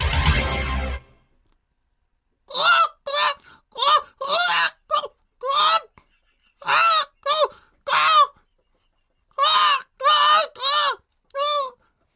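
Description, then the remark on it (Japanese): Comedian Mizukawa Katamari imitates a chicken, going first in a game, with a rapid series of loud, strained squawking and crowing bursts, spaced in uneven clusters, after a brief noisy rustle at the start. “さあ、それでは、行きましょう先行水川かたまりによる、鶏ですどうぞ”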